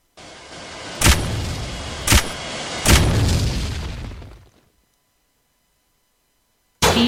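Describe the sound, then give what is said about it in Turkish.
Three sharp video game explosions burst in quick succession over a steady roaring rumble, the last one trailing off into silence before another loud blast cuts in at the very end. “Bakın patlama sesi bile farklı zaten.”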